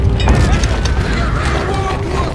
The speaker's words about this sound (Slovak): Temnota opäť zahalila zem a ozvalo sa hromové dunenie. Nastalo prudké zemetrasenie.